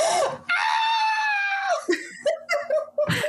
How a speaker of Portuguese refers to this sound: a gente tá gritando pra caralho. Nossa, tá gritando muito esse episódio.